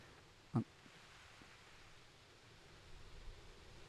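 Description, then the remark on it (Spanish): Heavy rain pours down in a steady, dense hiss that swells a little toward the end, its drops falling on a camera, with one sharp, brief knock near the start and no voices. “Ah, rayo, pero el agua se está poniendo bien fuerte.”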